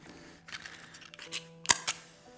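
Someone lights a candle in the darkened Theater aan het Spui in The Hague: a few sharp, bright clicks like a lighter being struck, with a soft rustle between them and no voices.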